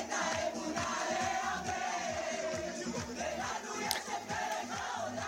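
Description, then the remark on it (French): A large crowd gathered outside a house in Israel celebrates the return of a young woman who had been kidnapped, a steady roar of cheering and chanting voices over a rhythmic, repeating low thump, like a drumbeat, that keeps a quick pulse throughout. “De nombreuses personnes se sont rassemblées également devant sa maison pour fêter son retour.”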